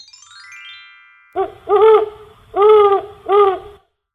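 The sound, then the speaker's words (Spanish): A shimmering descending chime gives way to four loud owl hoots, one short and three longer, with brief pauses between them and a low rumble underneath. “decidió castigarla convirtiéndola en lechuza.”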